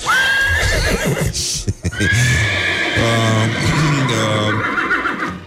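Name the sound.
horse neighing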